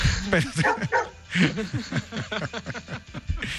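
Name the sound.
small dog barking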